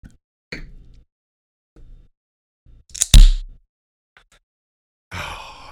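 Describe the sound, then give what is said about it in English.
A can of Stella Artois beer cracked open left-handed: a few fumbling metallic taps, then a sharp snap with a short hiss, followed by a fizzing rush of carbonation near the end. “that was the sound of a crisp Stella Artois from a can”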